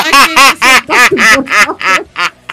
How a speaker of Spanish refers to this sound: ¿Qué fue eso? Una cornetita. un, pato, se metió un pato, se metió un pato dentro de la radio, gente.